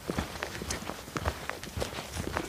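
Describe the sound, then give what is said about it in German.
Steady footsteps crunch along a forest path outdoors, a regular walking rhythm of soft thuds and scuffs over dry ground, moderately loud with no talking. “manchmal sind es irgendwelche kleine Trampelpfade, Wiesenwege, jetzt eben dieser schöne Waldweg hier mit Abenteuermodus, Gefahrenzulage.”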